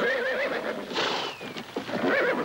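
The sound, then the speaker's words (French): Horses of approaching riders whinny loudly in wavering, quavering cries, one at the start and another near the end, over a busy background that may include faint hoofbeats. “des cavaliers approchent, monsieur.”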